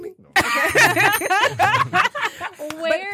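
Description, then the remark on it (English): A short bell rings out near the end, a steady, clear ringing tone sounding over lively overlapping voices and laughter. “did that bell come from?”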